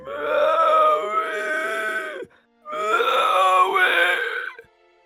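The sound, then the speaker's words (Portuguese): A hunchbacked man who cannot form words groans and wails in two long, strained vocal bursts separated by a brief pause, loud, with no intelligible words, crying and pounding on a church in a small square. “Ele tá chorando, ele tá batendo na igreja gritando o nome”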